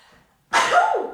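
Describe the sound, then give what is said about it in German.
A single loud sneeze bursts out after a brief quiet moment, sharp and breathy with a vocal tail that trails off. “Gesundheit. Huh, danke.”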